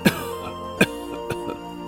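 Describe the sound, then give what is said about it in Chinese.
A feverish child hiding under the bedcovers coughs softly four times in short, muffled bursts: two sharper coughs, then two softer ones close together, over a faint, steady tonal background. “西西怕爸爸妈妈听见自己的咳嗽声，只好躲在被窝里轻轻的咳嗽。”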